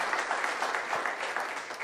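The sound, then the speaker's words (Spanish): An audience applauding the Lord: dense, steady clapping from many hands, a bright crackling wash that holds evenly for the whole stretch with no voices on top. “¿Cuántos aplauden al Señor?”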